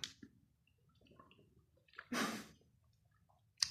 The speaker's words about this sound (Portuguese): E agora estou a beber água, calma